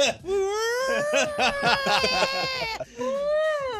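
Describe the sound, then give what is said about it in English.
Someone voices long, gliding moans in imitation of whale calls, one drawn-out wavering phrase, a brief pause, then a second rising and falling cry. “I'll just start making whale noises.”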